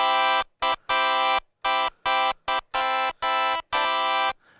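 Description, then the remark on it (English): A bright, buzzy synthesizer tone, with its attack wheel turned down, plays a quick series of about nine notes, each starting instantly at full loudness with no fade-in, loud, in an uneven staccato rhythm with no voices. “I can decrease this length by turning the attack Bottom or the attack wheel down, and we have this uh, envelopment of our signal.”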